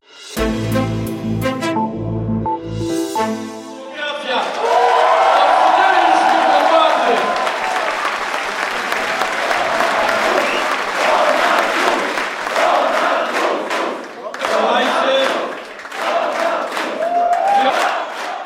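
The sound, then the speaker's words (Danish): After a brief burst of music, a large crowd breaks into loud, sustained cheering and applause, the roar swelling and dipping in waves with shouting voices mixed in, on election night from Sunday to Monday at the camp of opposition leader Donald Tusk. “Her hører vi reaktionerne på valgnatten søndag til mandag hos oppositionsleder Donald Tusk.”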